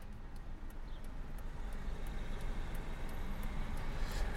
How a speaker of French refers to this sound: Donc on est de retour dans la voiture, cette fois-ci pour aller où ça